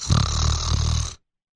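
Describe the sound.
A person imitates a man's snoring in his sleep: one rough, rumbling inhale-like rasp lasting about a second, loud, then abrupt silence.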